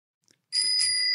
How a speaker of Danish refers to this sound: og vi har lavet en øh, ny jingle